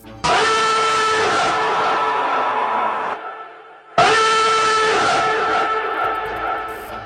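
A Russian civil warning system's nuclear threat signal: two long, loud, blaring horn-like blasts, each lasting about three seconds and separated by a short pause, sounding harsh with no voices.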